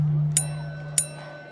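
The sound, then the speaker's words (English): A bell dings twice, about half a second apart, each strike bright and short with a faint ring, over a steady low hum, marking the end of a sword duel. “Yokno's bell rang twice.”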